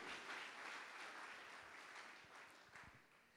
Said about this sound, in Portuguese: Glória a Deus! Pode aplaudir o Senhor forte. Aleluia!